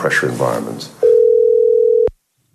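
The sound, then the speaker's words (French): A voice speaks briefly, then a single steady electronic telephone tone of a BBC phone call to Liz Truss sounds loudly for about a second before cutting off with a sharp click, followed by silence. “y compris quand Liz Truss se résout enfin à répondre à un coup de téléphone de la BBC.”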